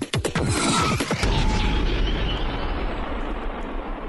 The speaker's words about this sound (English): All right, Um, such a loud explosion. It is. Imagine if you had subs when you were listening to that intro. Your old, your old trunk Whoa. would just shatter.